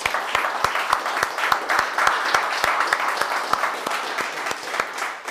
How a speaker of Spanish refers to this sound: tiene un fuerte aplauso a todas las naciones.